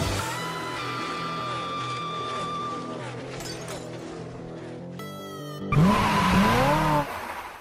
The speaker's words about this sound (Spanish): Damas y caballeros, Enciendan sus motores y que comience la adrenalina. Verde, verde, verde. Arrancamos.